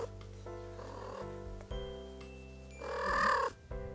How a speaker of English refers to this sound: Cats trilling usually occurs between a mother and their child, particularly to communicate a friendly hello. This also extends to their owners later in life.